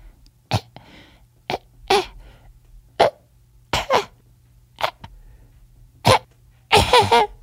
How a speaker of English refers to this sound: The smaller I, the smaller my coughs, the more sickly you know I am.